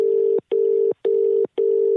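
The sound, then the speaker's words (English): A phone call to a man ringing out with no answer: a steady electronic tone pulses in four even bursts, loud, with short gaps between them and no voices. “Yeah, come on, big man, answer the phone.”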